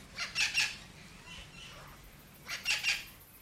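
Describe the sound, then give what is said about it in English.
Parrots squawk near a release cage in two harsh, raspy bursts of two or three calls each, separated by a short pause, with no talking. “They start interacting with local wild birds that are in the area because they make racket, they make a noise, and that attracts wild birds.”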